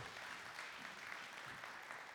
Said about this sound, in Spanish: Denle un aplauso, gracias